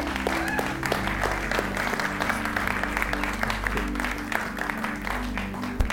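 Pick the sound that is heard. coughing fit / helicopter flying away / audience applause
audience applause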